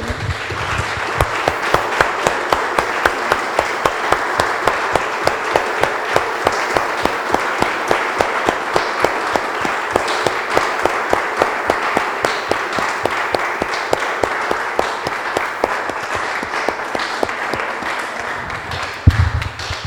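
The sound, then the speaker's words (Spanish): An audience bursts into sustained applause, a dense, steady wash of many hands clapping at an even loudness for about twenty seconds, fading slightly near the end. No one speaks over it. “Damos un aplauso, hermanos.”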